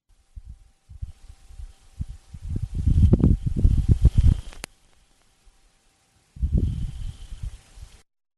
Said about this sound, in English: Okay, that is a dust devil. Uh, no, it's not the vacuum or whatever it is. It's not just a dust devil, but that is for the first time a the sound of a what they call a dust devil on Mars.